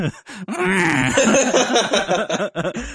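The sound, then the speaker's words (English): A voice imitates a confetti cannon being crushed by a snowplow: a loud, drawn-out strained groan that warbles and crackles for about three seconds, breaking up into choppy bursts near the end. “I sound like a like a confetti cannon that got caught underneath a snow like snowplow.”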